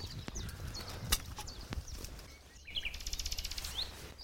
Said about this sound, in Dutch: Ja, dat was hem. Dat was de nachtegaal.